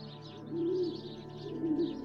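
Two soft, low pigeon coos come a second apart, each a brief throaty warble over a faint steady background hiss. No one is talking.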